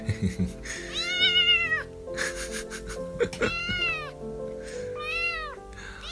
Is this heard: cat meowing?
yes